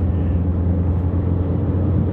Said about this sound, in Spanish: Un coche familiar como el Kia Sportage, que sabéis que tengo y que en estos momentos estoy conduciendo.